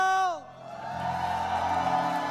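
A church audience bursts into loud, sustained shouting and cheering, a dense wall of joyful voices that swells after a brief opening cry and carries on steadily.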